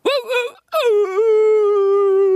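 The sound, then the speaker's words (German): A person's voice imitates a whimpering dog: a short whine, a brief pause, then a long, drawn-out, wavering whimper that sounds high and fairly loud. “Aber heute den ganzen Tag so, wo ich immer so, oh, äh, wäre ich Hund gewesen, hätte ich den ganzen Tag im Flur gesessen und immer so gemacht.”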